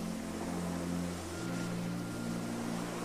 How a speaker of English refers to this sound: The warmth and gentle rhythm of the waves relax you further, and you feel calm and free.